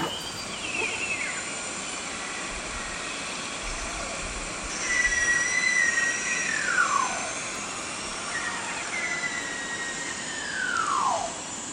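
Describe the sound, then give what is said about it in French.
Several high, sliding beluga whale whistles, each gliding downward in pitch, ring out one after another over a steady wash of underwater hiss and rumble. “Euh, beluga, c'est ça.”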